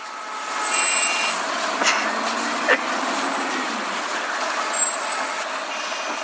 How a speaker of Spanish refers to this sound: Ya le puso ya le pusieron sonidos de calle. A ver, viene.